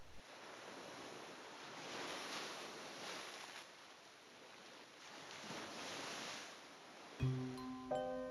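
Sea waves wash and break on a beach in steady, rolling surges, a broad hiss of surf swelling and receding, before a short burst of tonal music enters near the end.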